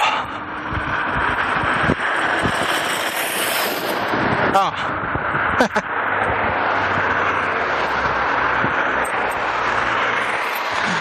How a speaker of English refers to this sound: That wasn't even a school bus, it was just the metro.